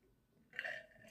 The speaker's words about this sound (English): Honestly, don't mind me sipping water ASMR.